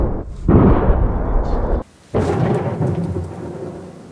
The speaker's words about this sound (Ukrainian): Та на Бахмучині зараз тихо не буває. Відбуваються постійно артилерійські дуелі.